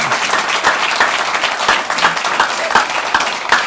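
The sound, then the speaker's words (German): An audience applauds steadily, many hands clapping in a dense, crackling wash of sound that holds at a fairly even loudness throughout, with no voices standing out. “Vielleicht können Sie sich alle mal klatschen oder erheben, damit auch alle hören”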